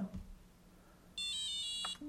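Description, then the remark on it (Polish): A braille display powers off after its power button is held for 3 seconds, giving a short series of electronic beeps stepping downward in pitch, clear tonal chirps lasting under a second after a brief click, with no talking. “Potem teraz był taki schodzący nieco w dół, dźwięki schodziły w dół, czyli monitor się wyłączył.”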